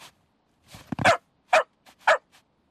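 A dog barks three times in quick succession, loud and close, with a few softer yips in between and no voices.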